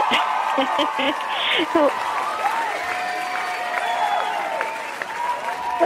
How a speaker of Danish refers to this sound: Hov, hvad sker der? Vi har da bare lige fået et lille, lille hold til at gå og klappe af dig.